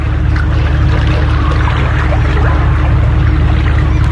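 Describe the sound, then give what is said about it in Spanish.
A small fishing boat pulls away from the coast at a harbor in Norway, its engine a steady low rumble beneath constant splashing, trickling water. No one speaks. “Así suena un puerto cuando una pequeña embarcación pesquera se aleja de la costa.”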